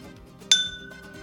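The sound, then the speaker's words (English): A single bright glass clink rings out sharply, its high tones lingering and slowly fading over a quiet background hum, as glasses of Chardonnay touch in a toast of cheers. “let me first go ahead and pour that.”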